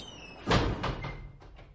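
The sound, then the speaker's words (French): A door in an apartment building is pulled shut with a solid thud as someone leaves for work, followed by a few softer clicks and knocks as the latch settles. “Je ferme ma porte pour aller au travail.”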